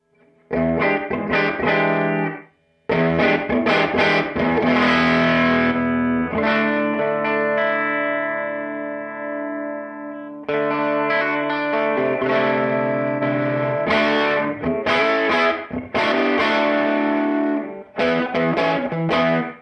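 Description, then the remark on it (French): An electric guitar played through a boosted tweed amp pedal with gritty overdrive: choppy strummed chords, a long ringing chord held in the middle, then more rhythmic strumming. It is loud, with no talking. “On peut faire le même genre de réglage euh, avec un son plus plus clean et puis activer ou pas le boost évidemment.”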